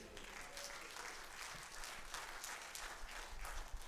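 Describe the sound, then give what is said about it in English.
A church audience applauds steadily in praise of God, a dense wash of clapping with scattered shouts of praise rising through it. “Somebody give him a praise up in here, would you?”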